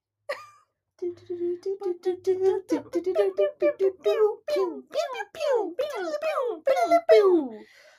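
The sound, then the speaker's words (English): Robotic electronic music: a run of short, buzzy synthetic notes, first holding a steady low pitch, then sliding and swooping up and down in quick, warbling bursts. “That was robot music.”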